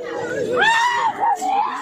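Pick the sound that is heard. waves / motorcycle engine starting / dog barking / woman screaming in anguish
woman screaming in anguish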